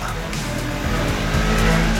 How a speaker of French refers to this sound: Le blouson noir, euh, grande taille, monté sur une moto sportive.